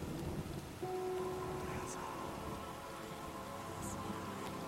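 Steady rain patters against a window in a dense, even hiss, with a low rumble of thunder underneath and a faint sustained tone running through the middle. No one speaks.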